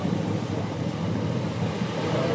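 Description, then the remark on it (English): Sea waves wash onto a beach in a continuous, steady roar of surf, with no separate crashes standing out and a windy rumble underneath. No one speaks. “you think we are getting startlingly close to the sea”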